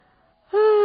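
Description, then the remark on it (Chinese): After a near-silent moment, a voice breaks into a loud, steady, open-mouthed tone, a person acting out a yawn, cut off while still sustained. “And then I yawned，然后我就打了一个哈欠。”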